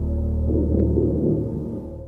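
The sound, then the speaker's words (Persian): A deep, slow synthesized heartbeat-like throb from the Terminator music, standing for a cyborg's heartbeat. It is a heavy, low rumbling pulse that stays steady and loud throughout, with no voices over it. “این دوم دوم معروفی که ما توی آهنگ ترمیناتور میشنویم و دیگه تا امضای اثر شده اینو برامون یه رمزگشایی میکنی که این دوم از کجا آمده این صدای دوم دوم که میشنویم یه جورایی نماینده تپش قلب یه سایبورگه”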